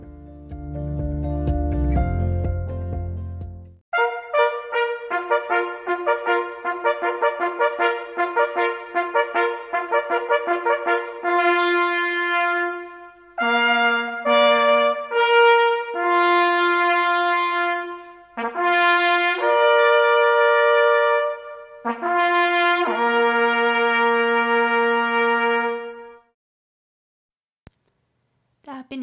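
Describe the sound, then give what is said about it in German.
A hunting horn plays the fox-killed call, loud: a run of quick repeated brassy notes, then longer held tones in short phrases separated by brief pauses, fading to silence. “Nach dem Hornsignal Fuchstod geht's auch schon los.”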